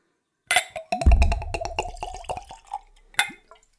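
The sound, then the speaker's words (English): Whiskey glugs from a screw-top bottle into a clean Glencairn whiskey nosing glass in a quick run of rhythmic gurgles, fairly loud, ending with a light clink of glass. “That's a healthy glug glug glug.”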